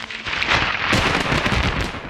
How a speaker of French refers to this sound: Cet éclair intense s'accompagne bien sûr d'un déplacement d'air. Et vous le savez, une vibration de l'air, c'est du bruit et c'est l'origine du tonnerre.